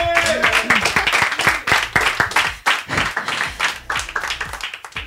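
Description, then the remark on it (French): Loud, sustained audience applause for a singer's accompanying musicians, a dense crackle of many hands clapping steadily for several seconds, with a few voices and cheers mixed in near the start. “Vous pouvez les applaudir très fort d'ailleurs.”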